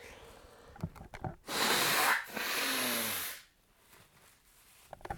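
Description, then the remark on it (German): A person blows their nose in two loud, rough, hissing bursts, the second longer and with a faint honking buzz, framed by a few soft clicks and rustles before and after. “Okay, ich muss nochmal äh, Zähne putzen, wollte ich gerade sagen, Nase putzen.”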